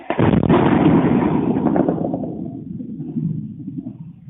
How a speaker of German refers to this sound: Russland attackiert die Ukraine mit einem Kampfdrohnengeschwader. Die ukrainische Luftabwehr hält dagegen. Gefilmt wird all das in Rumänien von Bewohnern des kleinen Dorfs Plauru, direkt an der rumänisch-ukrainischen Grenze.